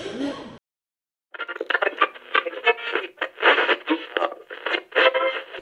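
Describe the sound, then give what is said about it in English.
A radio plays with a thin, tinny tone, its broadcast sound pulsing and fluctuating steadily for several seconds after a brief sound and a short silence. “There's never anything good on the radio these days.”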